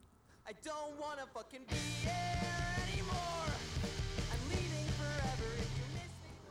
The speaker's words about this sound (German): Etwas älterer Song, der aber doch definitiv auch heute angeboten, äh, angebracht sein könnte mit den startenden Lyrics dieses Songs, die ihr jetzt hören werdet.